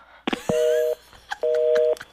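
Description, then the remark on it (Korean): A click is followed by two steady electronic phone-line tones, each lasting about half a second with a short gap between them, like a busy or disconnect signal after a call ends. No one speaks. “아 그럼 전화 끊을게.”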